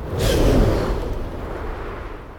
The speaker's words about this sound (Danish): med et kraftigt nys er støvet ude af din næse igen. Det er ret smart, for så er du sikker på, at luften, der kommer ned i dine lunger, ikke er beskidt.